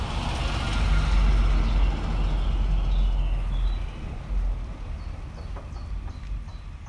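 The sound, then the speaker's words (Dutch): A truck rumbles past, a heavy low drone peaking early and fading after a few seconds, while chickens cluck faintly in the background. “Er komt even een vrachtwagen langs.”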